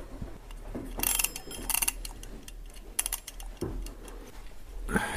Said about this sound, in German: Und du hattest äh, nicht mehr die Zeit zu antworten, weil der Wecker dazwischen gekretscht ist. Den ich jetzt auch mal stellen muss, dabei fällt mir ein, genau. Wir haben ja hier unsere Eieruhr.